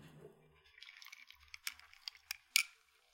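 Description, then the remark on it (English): Someone takes a quiet sip of a shrub, a sweetened vinegar mixer: soft wet slurping with a few sharp little smacks and gulps, the loudest near the end, with no talking. “Hang on, I need a sip of mine.”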